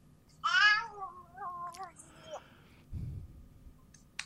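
A female cat meows loudly, a drawn-out wavering call followed by a few shorter chirping sounds and a low thump, with faint background hum.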